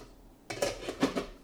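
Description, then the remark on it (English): A few metallic clanks and scrapes of a pot and lid on the stove being handled as the pot is checked, with water heating toward boiling, coming in quick uneven bursts after a brief quiet moment, with no one talking. “I'm um, need hang on, gotta look in this pot over here.”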